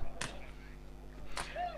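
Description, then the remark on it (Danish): Two sharp firework cracks about a second apart, fairly faint, over a steady low background hum, with a brief thin whistle-like tone after the second bang. “Og, der er der lidt fyrværkeri.”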